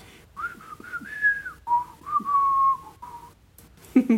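Someone whistles a catchy pop tune, a few smooth melodic phrases with short pauses between them, clear and steady, ending with a brief vocal sound.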